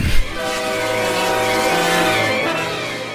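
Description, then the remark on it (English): An approaching train's whistle blows in one long, steady, loud wail while its bell tolls, the layered tones held for several seconds over a low rail rumble, with no voices. “The train was coming closer. I could hear its bell tolling, its cry, its whistling, crying.”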